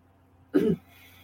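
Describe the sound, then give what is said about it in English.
A single short, throaty hiccup bursts out, a quick voiced jolt surrounded by quiet, with no talking. “I love you guys, but I have the hiccups and I'm sorry.”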